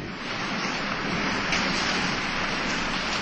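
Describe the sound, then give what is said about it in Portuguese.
A steady, dense roar of heavy rain from a violent storm at sea, loud, with a wind-like rush running continuously throughout and no voices. “Logo em seguida, a chuva se transformou numa violenta tempestade.”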